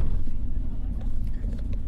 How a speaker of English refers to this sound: being recorded in a bus in the Middle Atlas Mountains of the Kingdom of Morocco.